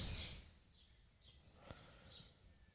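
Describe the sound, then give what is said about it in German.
Faint birdsong in a garden: a few short, high chirps scattered over a few seconds against a soft background hum, with one sharp click midway. “Was ich meine, natürlich der Lärm der Vögel hier im Garten.”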